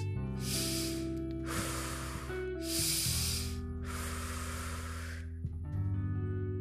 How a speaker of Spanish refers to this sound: Desde ahora comenzaremos a hacer respiraciones cortas.